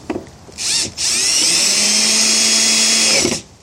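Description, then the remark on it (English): A power drill drives screws back in outdoors on a cold, rainy day of about 35 degrees in South Louisiana: a short whirring burst, a brief pause, then a longer steady high-pitched whine that winds up, holds for about two seconds and spins down. No one speaks. “And now put the screws back in.”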